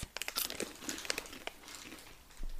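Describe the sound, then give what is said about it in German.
Crisp crunching of someone chewing popcorn from America, a rapid run of irregular crackly bites and crinkles with no talking. “Ja, ich weiß, du kaust noch und du wirst wahrscheinlich auch bis zum Ende der Folge kauen.”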